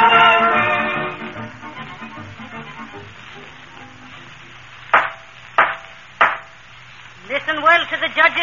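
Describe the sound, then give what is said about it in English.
A gavel bangs three times in a court, sharp, loud wooden knocks at a steady pace, with voices speaking before them and again right after. “gavel, McGee. It's the only knock that ain't a boot.”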